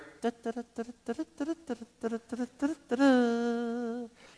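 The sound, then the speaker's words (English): A voice mimics the galloping hooves of charging cavalry horses with quick, rhythmic vocal bursts in uneven pairs and triplets, then ends on a long, sustained sung note, fairly loud. “In swooped the cavalry. Yay! The U.S. cavalry comes charging in.”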